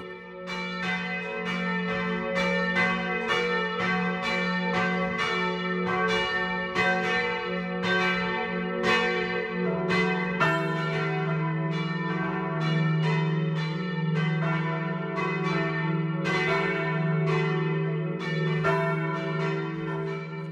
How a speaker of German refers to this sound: BR Heimat, 12 Uhr läuten. Es ist 12 Uhr. Das Mittagsläuten kommt heute aus Fraßdorf im Chiemgau.